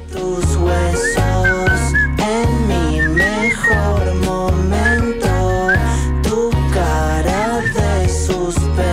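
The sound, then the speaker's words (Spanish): A whistled melody floats over a steady, loud musical backing with a heavy bass beat, the tune bending and sliding through short phrases for the whole stretch. “Bueno, si te, parece, nos vamos silbando y contestando esa melodía.”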